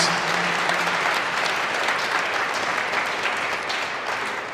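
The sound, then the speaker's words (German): An audience applauds the Lord steadily for several seconds, a dense, even wash of many hands clapping at constant loudness with no voices standing out. “Genau, wer glaubt, dass da was rauskommt, gibt dem Herrn und uns gemeinsam mal einen Applaus.”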